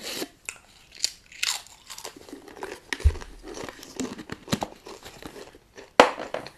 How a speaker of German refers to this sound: By the way, das waren echte Chips. Völlig selbstlos musste ich sie essen.